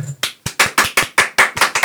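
Two people applaud up close, their hand claps sharp and rapid in an uneven, overlapping rhythm for about two seconds, with no talking.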